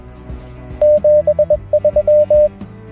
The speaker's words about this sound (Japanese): どういうことかっていうとモールス符号で73はあーツートントントン、えー、少し間が空いてトントントンツー